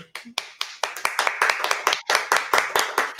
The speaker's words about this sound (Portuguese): E com vocês, com uma salva de palmas, com muita energia